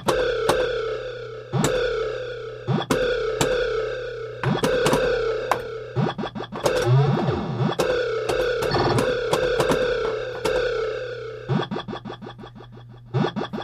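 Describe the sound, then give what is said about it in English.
Pinball pop bumpers firing off a series of sharp, punchy electronic hits at irregular intervals over a steady buzzing tone, ending in a quick burst of rapid-fire clicks. “of course, the pop bumpers sound great in this game.”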